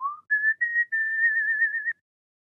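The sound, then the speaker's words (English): A person whistles a short melody alone, a clear, steady tone that steps from a low note up to a higher one and holds there in a few connected phrases, ending abruptly. “I started singing um or uh, like whistling and singing this um this melody that's in it that like was like”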